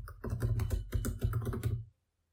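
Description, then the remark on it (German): Rapid clicking of keys on a computer keyboard for about two seconds, a quick burst of typing with a steady low hum underneath, then silence. “Muss ich gleich mal googeln.”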